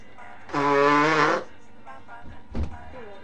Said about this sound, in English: Whenever I blow my nose, I sound like an elephant.